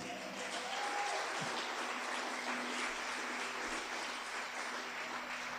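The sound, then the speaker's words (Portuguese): A large crowd applauds the Lord at a preacher's call, dense overlapping clapping at a constant, loud level with no pauses. “Pode aplaudir o Senhor.”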